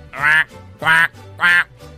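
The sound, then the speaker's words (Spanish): A duck quacks three times in quick succession, loud, each call a short nasal honk with brief pauses between, and no voices in the background; a duck shot by a hunter in the United States flies off. “Y el pato se fue.”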